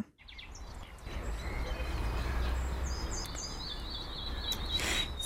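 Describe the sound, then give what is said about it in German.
Several birds chirp and twitter in short, high bursts, fairly faint, over a steady rushing outdoor background noise that fills the whole recording; springtime birdsong. “Sie zwitschern und trällern und schreien auch bei schlechtem Wetter laut, der Frühling ist wieder da.”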